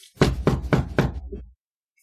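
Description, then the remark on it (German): Four firm, evenly spaced knocks on a closed door, fairly loud, in quick steady rhythm, followed by silence. “Ja, die Tür ist nach wie vor geschlossen.”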